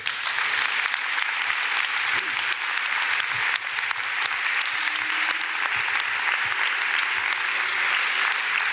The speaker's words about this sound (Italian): Facciamo un applauso a papà.